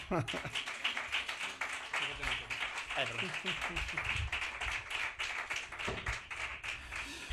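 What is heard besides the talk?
applause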